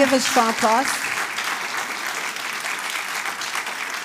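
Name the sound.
audience applause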